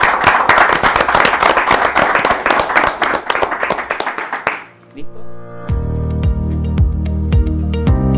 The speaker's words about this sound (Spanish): Un aplauso a ustedes.